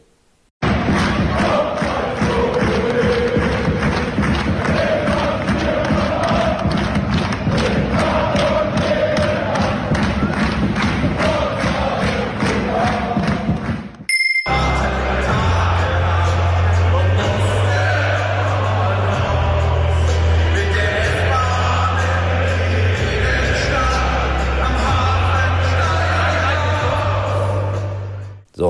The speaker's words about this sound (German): Äh, ein grenzenloser Optimismus in der Stadt und das drückte sich auch im Stadion aus. Eine wirklich tolle Fußballstimmung.